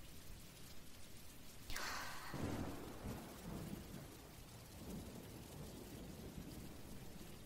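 Steady rain hisses throughout while a rumble of thunder rolls in partway through, swelling broad and deep before fading back into the constant downpour. No one speaks.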